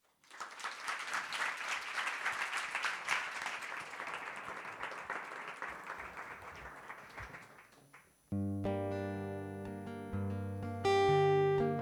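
Loud, dense crowd applause with many hands clapping steadily for about eight seconds, then it cuts off as sustained tonal music with a steady pitched drone begins.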